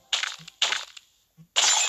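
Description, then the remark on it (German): In a video game, a character flies through glass, against a pane and down: three loud glass-smashing crashes in quick succession, each a bright burst that quickly fades, with a soft low thud between them and no voices. “Durch Glas geflogen, gegen die Scheibe und runter.”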